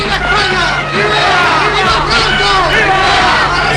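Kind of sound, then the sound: crowd, crowd cheering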